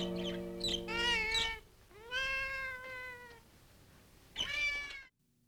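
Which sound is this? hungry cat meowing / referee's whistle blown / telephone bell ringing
hungry cat meowing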